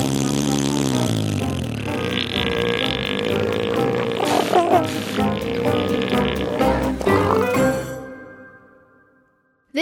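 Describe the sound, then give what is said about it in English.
A human voice imitates an elephant seal call: a loud, guttural belching rumble with pulsing throaty bursts, sustained for several seconds before cutting off into near silence. “let's try and make that elephant seal sound.”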